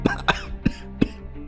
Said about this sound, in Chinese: 妈妈被气得一口气没上来，不停的咳嗽着，身体摇晃了好几下，差点摔倒。